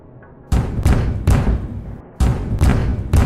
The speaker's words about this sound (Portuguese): Mais uma batida na porta.